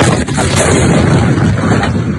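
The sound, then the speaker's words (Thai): A massive explosion at a port, set off by a fire near a warehouse, roars with a deep, sustained rumble that stays loud and dense for the whole stretch, an overwhelming blast with no voices. “ระเบิดที่แรงมากขอคลิปนี้รอบใช่นดครับขอคลิปนี้รอบครับคือเขตระเบิดครั้งนี้เนี่ยอย่างที่บอกครับมันดันถ้าถ้าถ้าเป็นการับใกล้กับฝั่ระเบิดท่าเรือก็เลยทำให้เกิดระเบิดรุนแรงตามขึ้นมาอีกครั้งหนึ่งนะครับ”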